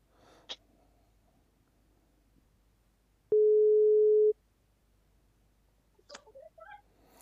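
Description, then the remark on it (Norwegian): A single loud, steady phone ringing tone as a call is placed, lasting about a second, a flat electronic beep. Quiet clicks and rustling come before it, and soft breathy noises follow. “Men vi ringer opp”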